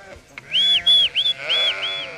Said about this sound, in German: sind von Ginger aus in Richtung Hochrömstraße unterwegs und wir haben 600 Schafe mit dabei. Derjenige, der hier pfeift und immer Schreier loslässt, ist der Schäfer,